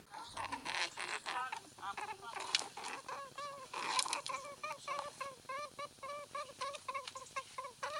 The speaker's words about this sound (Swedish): Låter som ett marsvin. Låter lite som ungar. Är det ungar? Eller är det en vuxen kanin? Det är en vuxen kanin. Mm. Okej. Mm. Först i början Men, hördes det lite som snarkningar och sen så gick det... Ja. Mm. Är det liksom något slags mysljud?